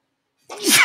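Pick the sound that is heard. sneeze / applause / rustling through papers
sneeze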